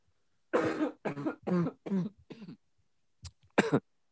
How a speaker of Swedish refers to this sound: Jag kan inte sluta hosta.